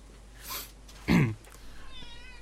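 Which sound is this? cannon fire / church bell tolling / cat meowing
cat meowing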